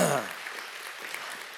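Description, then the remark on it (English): An audience claps together in steady, dense applause that holds at an even level throughout, after a brief voice at the very start. “And uh, yeah, let's give the Lord a round of applause for that.”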